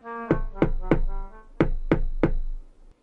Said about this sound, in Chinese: 大野狼走到农场的门口，然后敲了敲门。